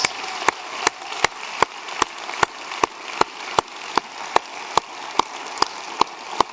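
A church audience applauds its volunteers steadily, a dense wash of clapping with sharp, evenly spaced claps cutting through in a regular beat for several seconds, with no voices over it.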